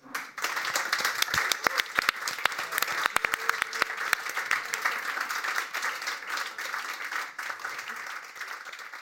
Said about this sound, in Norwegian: Og da sier jeg tusen takk for eh, debatten, at dere hørte på. Uh, gi en applaus.